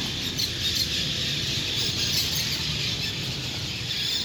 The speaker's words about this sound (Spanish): pues aquí cada tarde llegan miles de estas aves como piuichos y golondrinas a apoderarse de los frondosos árboles que se encuentran rodeando el lugar. Su sonido es mágico, parecen dirigidas como en una orquesta